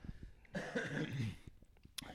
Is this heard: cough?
yes